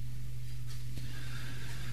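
A donkey brays loudly, a harsh, drawn-out call that holds steady for about two seconds with no one speaking.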